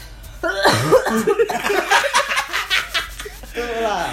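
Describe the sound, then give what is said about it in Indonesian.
A run of short, harsh coughing bursts from a person, bracketed by voiced, drawn-out vocal sounds at the start and end. “Batuk dulu, gak usah garuk-garuk ketek gitu.”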